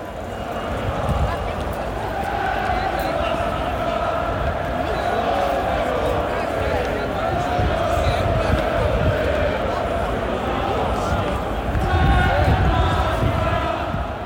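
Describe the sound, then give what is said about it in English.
A large crowd of football supporters chants together in Trafalgar Square on Saturday, 25 February, a dense, loud wall of voices that carries on steadily throughout and swells slightly near the end. “There were, of course, football supporters, and there were loads of them.”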